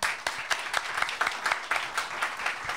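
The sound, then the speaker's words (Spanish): An audience applauds Fernando steadily, many hands clapping in a dense, bright patter that holds an even level with a few louder claps standing out, and no voices over it. “Un aplauso a Fernando.”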